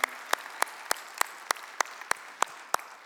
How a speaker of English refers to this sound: Now, let's all give everybody a round of applause. We're glad that you guys are a part of the Sagebrush family.